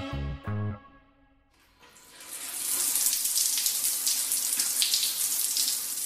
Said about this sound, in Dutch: We horen de lopende douche. En eh, dat was eigenlijk het eerste geluid waar ik aan moest denken.